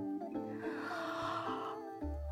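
A drawn-out voiced yawn lasting about two seconds, a breathy, moaning tone that holds steady and then cuts off, with no speech around it.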